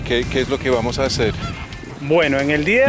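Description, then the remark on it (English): A huge flock of flamingos, turned up in the morning after days of rain, honking: many overlapping nasal calls in quick bursts, then a longer run of louder, rising and falling honks near the end, with no gaps of quiet. “usually at this time of year, the flamingos there aren't many flamingos because the water levels drop but it rained quite a lot over the last few days, and a huge group of flamingos turned up this morning, so I'm super excited about that.”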